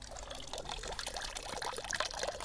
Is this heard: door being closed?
no